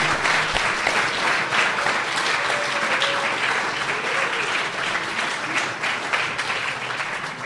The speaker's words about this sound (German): Bitte einmal auf die Bühne. Applaus, Applaus, Applaus.